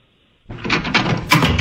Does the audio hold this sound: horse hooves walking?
no